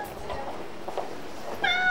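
cat meowing

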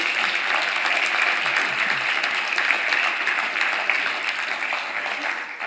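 audience applauding

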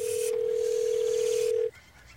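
telephone call dialing tone

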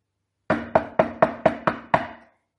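knocking on a door

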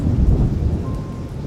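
rain

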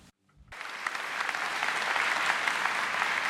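audience clapping

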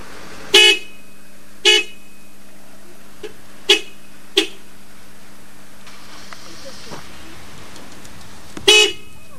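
car horn honking

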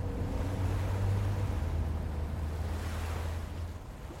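ocean surf

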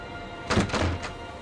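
door thudding shut

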